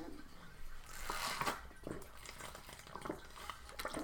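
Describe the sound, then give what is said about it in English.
Someone takes a sip of water: soft liquid slurps and mouth noises, a swallow, and faint breathing, with no talking. “Sorry, I had to drink a little bit of water, getting a little dried out.”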